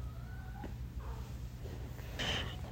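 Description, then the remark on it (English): A female cat whines faintly, wanting to come in, a thin drawn-out cry that slides downward, followed by a short rustling noise, all over a steady low hum with no one talking. “And can you hear my cat whining? She wants to come in.”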